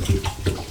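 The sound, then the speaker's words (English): Water sloshes and splashes in a short, continuous burst with a couple of slightly louder surges as a turtle moves around. No one speaks. “Excuse the noise. It's that turtle.”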